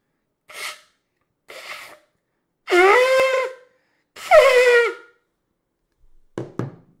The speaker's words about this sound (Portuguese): Dá um brado aí. Toca a corneta. Vamos ver se eu vou conseguir.